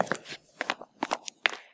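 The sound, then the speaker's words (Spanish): Quick footsteps tap out a brisk, uneven rhythm, about half a dozen crisp steps with a slight scuffing crunch and no voices: rapid steps approaching from behind on a street. “De pronto, escucha el repiqueteo de unas pisadas rápidas que se acercan por su espalda.”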